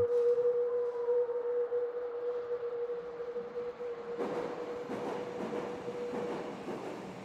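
A Hamburg metro train, filmed in real time in Nicolas Schmitt's medium-length film First Time, runs along the line with a steady, humming motor whine, then a louder, rushing rumble of wheels and rattling carriages builds up. No voices.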